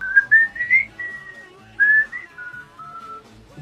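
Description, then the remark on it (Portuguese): Someone whistles a short melody, the whistled part of a song, with clear gliding notes rising and falling in phrases and a brief pause partway through, and no talking. “E aí eu tem uma parte que é em assobio, que ele vai cantando, tipo”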